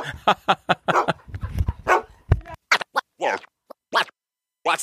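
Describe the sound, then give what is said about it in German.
A dog runs off barking in a series of sharp, separate yelps, with scratching and scuffling noises mixed in during the first half and clear gaps between the later barks. “Mein Hund haut ab. Oh, der Hund haut ab.”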